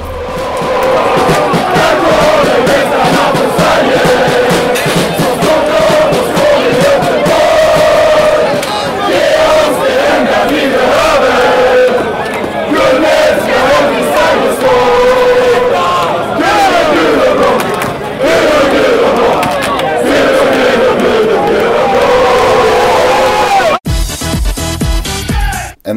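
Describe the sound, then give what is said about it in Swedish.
A large crowd of football fans sings chants together, loud and continuous with a rhythmic, rolling melody, filling the space for about twenty-four seconds before cutting off abruptly. “Vi har ju försökt prägla ramsorna.”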